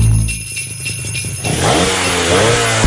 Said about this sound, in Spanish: Enciende los motores porque esta Navidad te vas a montar y a equipar tu casa con Pinturas Domastur.